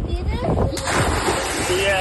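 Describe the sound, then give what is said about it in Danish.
A person plunges into water with a sudden splash, a child's voice heard before and after it, all over steady outdoor wind and water noise. “Jeg, el- jeg elsker, at du kan høre barnet inden, så rammer jeg vandet. Plask, og så kan du køre noget barn efterfølgende.”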